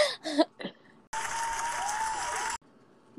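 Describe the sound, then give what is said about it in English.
A short burst of applause sound effect, dense steady clapping lasting about a second and a half, starting and stopping abruptly, preceded by a few brief bits of voice. “Add like clapping noises.”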